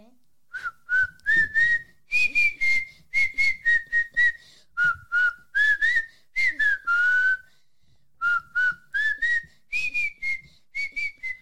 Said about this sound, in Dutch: En kan je nog een heel klein stukje fluiten? Gewoon maakt niet uit wat, wat er nu in je opkomt.